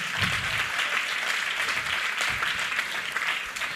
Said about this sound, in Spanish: Vamos a darle otro aplauso a esas personas que nos acompañan hoy.